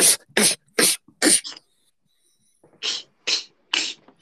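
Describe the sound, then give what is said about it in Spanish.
Someone beatboxes a series of sharp, breathy inward snare hits, each an S drawn inward with a K: four quick ones, a pause, then three more, each a hissing, sucked-in burst. “No me sale mucho ese, la caja para adentro, ¿eh?”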